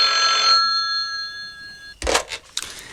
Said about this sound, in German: Da klingelte das Telefon.